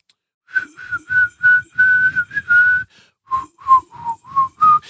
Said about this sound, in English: I had everybody whistle ah. the uh, ah. Onward Christian Soldiers